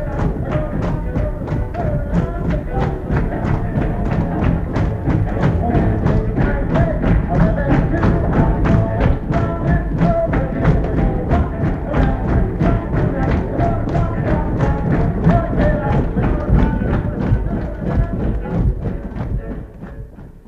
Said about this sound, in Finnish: siinä suhteessa tässä filmissä ei ollut mitään erikoista – mitään tanssiesityksiä elokuvateatterin käytävillä ei myöskään nähty Lontoon tapaan, vaan yleisö ainoastaan jalkojen tömistyksin osoitti olevansa mukana filmin loppumelodiaan asti.